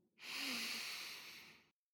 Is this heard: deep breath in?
yes